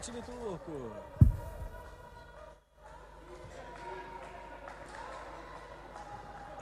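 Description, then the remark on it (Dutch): During a volleyball match rally in Brazil against Turkey, a single sharp smack of the ball being hit rings out near the start, set against steady arena crowd noise with a voice talking underneath. “Zullen we kijken naar een, eh, naar, naar een puntje dat jullie eh, in Brazilië scoorden tegen de Turken?”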